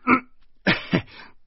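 A single throaty cough, then after a short pause two rougher coughs in quick succession trailing into a breathy rasp. Moderately loud, with no speech around them.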